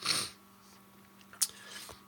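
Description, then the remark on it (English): A quiet sip of beer: a short airy slurp at the start, then near-silence broken by a single small click or swallow. No one speaks. “I'm gonna have a sip of beer and then I'm gonna tell you about my nose.”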